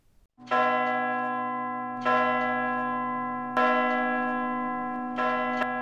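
Loud church bells ring, four strong strikes about every one and a half seconds, each leaving a long humming ring that overlaps the next, with no voices.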